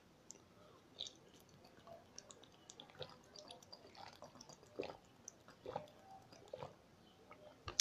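Someone sips and swallows water, with quiet wet mouth clicks and small gulps spread over several seconds and no talking.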